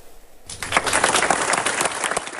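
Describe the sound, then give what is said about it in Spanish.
Applause breaks out suddenly after a brief quiet moment as six murdered medical students of the Universidad Latina de México, Celaya campus, Guanajuato, are bid farewell; a dense, steady patter of many hands clapping at a fairly loud, even level, with no voices standing out. “Con aplausos fueron despedidos los seis estudiantes de medicina de la Universidad Latina de México, Campus Elaya, donde se suspendieron clases para acompañar a amigos y a las familias de los jóvenes asesinados.”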